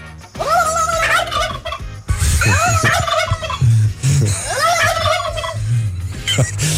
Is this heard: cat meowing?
no